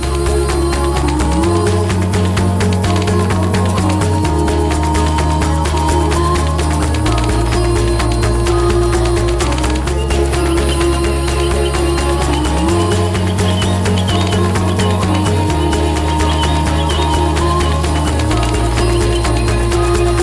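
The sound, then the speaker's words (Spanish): A video game soundtrack song plays loud and continuous, with a deep bass line stepping between sustained notes under a busy, shimmering upper texture, and no one talking. “vamos a escuchar este … de … del Botanicula”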